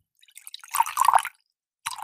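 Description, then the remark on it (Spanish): Water is poured for someone in a short gurgling, splashy stream lasting about a second, then stops; after a brief pause, the pouring starts again. No one speaks. “Perdón, estamos en el baño. Ah, mentira, estás sirviendo agua”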